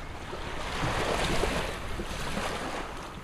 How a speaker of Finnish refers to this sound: Seisoskelemme tihkusateessa tyhjällä uimarannalla.